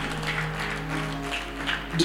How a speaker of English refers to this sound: We need to clap for her a lot more yes, than we have done.